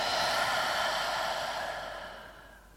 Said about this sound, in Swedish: Ta ett djupare andetag in. Och andas ut.